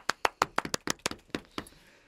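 Brief, light applause: a dozen or so sharp, crisp claps in an uneven rhythm, strongest at the start and thinning out as they fade over about two seconds. No one speaks.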